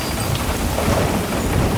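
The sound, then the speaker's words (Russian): Steady, heavy rain pours down on a dark night over a lit area in front of an empty cafe, in the film Legend No. 17, in a continuous dense hiss with a low rumbling undertone, fairly loud and even throughout, with no voices. “Темная дождливая ночь, освещенная площадка перед пустующим кафе.”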